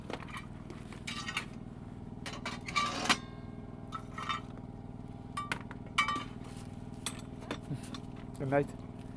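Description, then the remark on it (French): Irregular metallic clinks and scraping clatters as a woman puts a little coal into a small stove in a yurt for the night, with a steady low hum underneath and a few quiet knocks between the louder bursts. “Donc ça, c'était la dame qui nous a mis un petit peu de charbon dans notre chaudière pour la nuit dans la yurte.”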